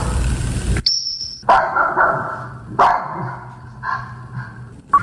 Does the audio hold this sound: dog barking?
yes